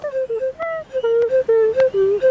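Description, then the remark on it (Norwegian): A man plays a one-note flute from Africa in short, breathy, rhythmic bursts, its pitch bending slightly between notes as he moves his tongue, while he taps on his chest as he blows. Fairly loud, with no talking. “Ja, dette er en som spiller på ei fløyte fra Afrika. Og der, eh, der er kun én note på han da.”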